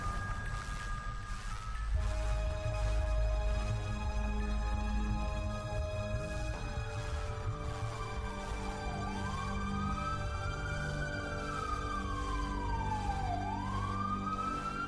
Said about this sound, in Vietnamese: Tiếng còi xe cứu thương kéo dài suốt một quãng đường trở đi đến bệnh viện